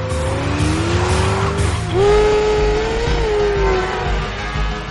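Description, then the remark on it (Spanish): A black 1970 Chevrolet Chevelle with two white stripes chases a motorcycle: its engine roars steadily over a deep rumble while a long, wavering tire squeal cuts through, dipping briefly and rising again, loud throughout with no voices. “Un Chevrolet Chevelle del 70 lo persigue.”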